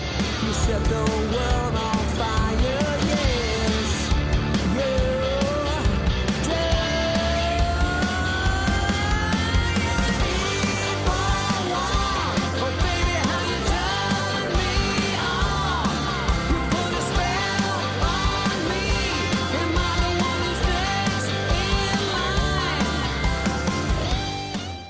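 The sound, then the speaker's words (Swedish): A hard rock song, the first single from a joint album released in January 2024, plays at a steady, loud level for the whole stretch, with dense distorted guitars, pounding drums and a strained, soaring lead vocal riding on top. “Och eh, de har släppt en första singel, så vi tar och lyssnar på den”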